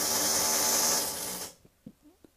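A neighbor's power drill whirs loudly with a steady, high-pitched grinding for about a second and a half, then cuts off abruptly, leaving only a few faint, brief sounds.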